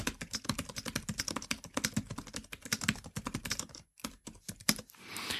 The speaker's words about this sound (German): Um euch mal einen Eindruck zu geben, wie die Tastatur klingt, habe ich jetzt einfach mal ein Dokument aufgemacht und fange mal an zu schreiben